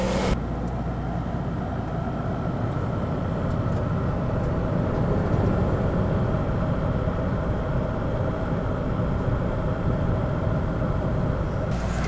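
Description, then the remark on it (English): The air conditioner of a Pleasure-Way Class B RV called Snow White, in a driveway in Navarre, runs with a steady, unbroken mechanical hum and rushing airflow, fairly loud, holding an even level throughout with no talking. “And here's what that air conditioner's like.”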